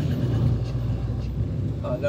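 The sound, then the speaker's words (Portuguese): A car drives along in the rain at about 50 km/h, its steady low engine and road rumble filling the scene, with a soft, continuous wash of wet hiss on top throughout. “Aí é, tá na chuva aqui, é, é, cara, é cinquentinha por hora, meu.”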